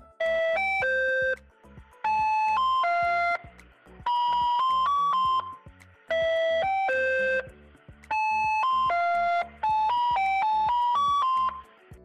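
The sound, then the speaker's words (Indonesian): A tinny electronic Walls ice cream cart jingle plays a short chiming melody over and over, looping in steady phrases, loud, with no voices. “Es krim walls.”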